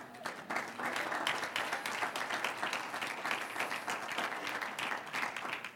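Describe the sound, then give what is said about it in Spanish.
A church audience applauds the Lord during a sermon with steady, dense clapping that holds at an even loudness for several seconds, with faint murmuring voices mixed in. “Yo de usted aplaudí al Señor.”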